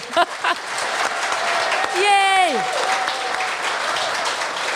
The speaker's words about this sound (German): Und ihr habt das ja auch mit einem dicken Applaus, äh, hab ich das äh, vorhin auch mal äh, applaudiert hier, das dort nochmal.